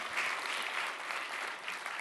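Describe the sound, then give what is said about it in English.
An audience claps their hands to give the Lord a great big hand clap in thanks, a steady wash of dense applause, many overlapping claps merging into a bright, continuous patter that stays fairly even throughout, with no voices standing out. “And if you're thankful, could you give the Lord a great big hand clap today as well?”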